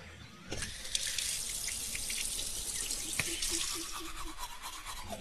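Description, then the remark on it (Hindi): A tap gushes steadily into a sink from about half a second in, fairly loud, while someone slowly and lazily brushes their teeth, the toothbrush scrubbing faintly underneath. No one speaks. “मैं बड़े ही आलस के साथ धीरे धीरे अपने दांतों को ब्रश करने लगा”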